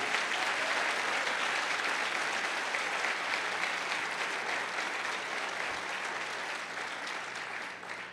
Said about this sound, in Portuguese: Só quem está vivo aqui pode aplaudir o nome dele, celebrar o nome dele.